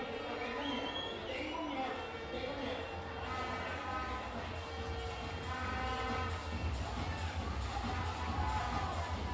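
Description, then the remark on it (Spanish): A stadium crowd at a baseball game whistles steadily as pitcher José Carlos Medina keeps throwing to first base, shrill tones rising above a constant roar of voices that stays loud for the whole stretch, with talking mixed in. “La gente silba porque insiste Medina en lanzar a la inicial.”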